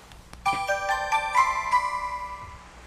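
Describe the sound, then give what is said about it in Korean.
A bright electronic text message alert from a mobile phone chimes out in a quick melodic run of about five tonal notes, clear, then rings out and fades with no voices. “휴대폰을 꺼내 옆에 있는 그 사람에게 문자를 보냈죠.”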